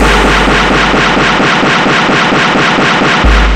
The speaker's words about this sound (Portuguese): E brota na Francisco Nunes, é tiro pra caralho.